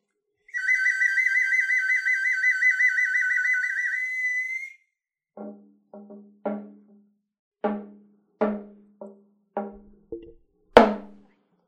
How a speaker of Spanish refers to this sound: Amiga, ¿puedes tocar un poco ahí el flautín? El clarinete. El... clarinete, ¿puedes tocar un poco el, clarinete? el, el clarinete?